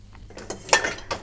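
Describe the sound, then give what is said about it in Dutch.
Dishes clinking and clattering as a dishwasher is unloaded: several sharp, bright knocks of crockery and cutlery at an uneven pace, one louder clatter in the middle, with no talking. “Eerst de vaat eruit en dan laten aflopen.”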